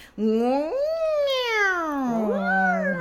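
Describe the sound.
A single voice makes drawn-out, wavering 'wow' noises, two long sliding pitch glides, fairly loud, sounding almost like a cat's meow.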